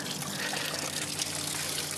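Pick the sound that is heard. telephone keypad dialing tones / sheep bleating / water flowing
water flowing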